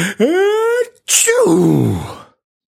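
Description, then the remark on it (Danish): A voice acts out a loud, exaggerated sneeze: a drawn-out rising "ah" build-up, a brief pause, then a forceful bursting "choo" that trails off in a falling tone. “siger far, da han ikke længere kan holde nyset tilbage.”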